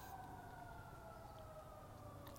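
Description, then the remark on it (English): Emergency vehicle sirens wail faintly in the background, a steady sustained tone drifting slowly lower in pitch over a low background rumble, with no one speaking. “Even right now, for example, some uh, sirens going on in the background.”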